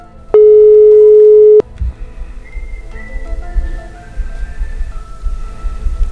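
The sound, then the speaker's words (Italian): A loud, steady telephone line tone sounds once for just over a second as a phone call is placed, then cuts off, leaving a low, murky background hum with faint warbling tones. “E uno così cosa fai? Lo chiami, esattamente, esattamente.”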